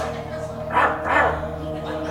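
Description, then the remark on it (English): A dog barks twice in quick succession, two fairly loud barks over a steady low background hum. “Get down, Buster! Get down now!”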